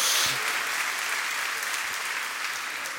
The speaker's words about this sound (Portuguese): Pode dar uma salva de palmas ao Senhor, querido.